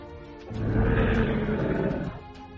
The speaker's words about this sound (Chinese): 狮头兽怒吼。两头狮头兽飞速狂奔，一左一右杀入人群。